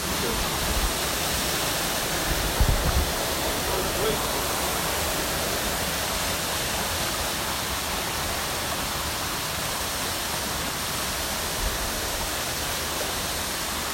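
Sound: waterfall rushing water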